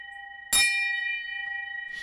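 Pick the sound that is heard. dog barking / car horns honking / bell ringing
bell ringing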